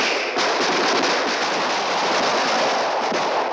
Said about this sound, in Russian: Товарищи бойцы и командиры 176-й стрелковой дивизии, в честь боевой дружбы! Салют!